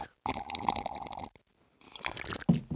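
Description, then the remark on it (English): Wet slurping sips of hot Starbucks coffee: a long noisy pull, a brief pause, then a second sip ending in a soft swallow, with no talking. “Let's start with a sip of our coffee, real quick.”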